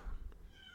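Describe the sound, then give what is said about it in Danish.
A single drawn-out cat meow from outside a closed door, the cat complaining that it is not allowed in, faint and muffled, rising over low background rumble with no one talking. “kat, Manse, ud for døren. Han brokker sig over, at han ikke må komme ind og være med”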